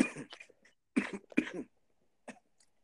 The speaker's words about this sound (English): this cough is just serious.